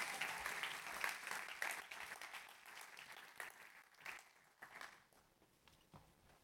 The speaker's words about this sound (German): Geben wir ihnen einen herzlichen Applaus hier auf der Bühne.